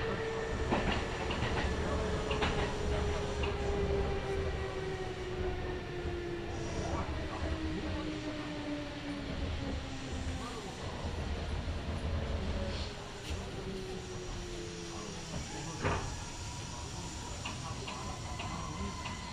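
A Kintetsu Nagoya Line local train in Japan, running from Shiroko to Tsu-Shinmachi, rolls steadily along the rails, with a continuous rumbling drone, a slowly falling motor whine, and intermittent clicks and clacks from the track, heard from inside the car.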